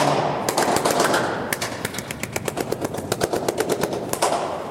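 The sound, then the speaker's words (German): A rapid series of sharp, echoing hand claps at an acoustic installation, loud, that ring out like gunshots; scattered at first, then settling into a steady quick rhythm of about five per second, with no talking. “Nö, das Klatsch klingt wie Schüsse.”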